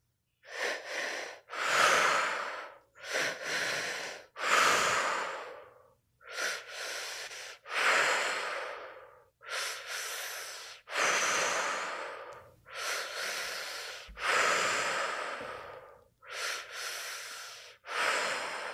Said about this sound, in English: Letting the breath do the work. You're safe to feel, you're safe to release focusing on breathing in what you desire to feel and exhaling what no longer serves.